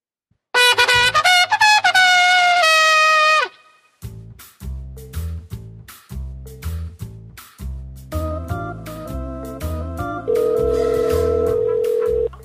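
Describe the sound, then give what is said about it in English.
The red telephone box in Epcot rings: a loud, buzzy electronic tone holds for about three seconds, then a steady run of rhythmic pulsing bursts, ending on another sustained tone. No one speaks. “This is the Disney Brit radio show from the UK, and we just like ring people and say hello to them if they pick up the phone.”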